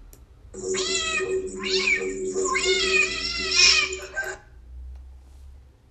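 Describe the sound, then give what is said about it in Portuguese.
A cat meows in one long, drawn-out cry with a wavering pitch, loud, then the sound stops and only quiet background remains. “Esse é o gato.”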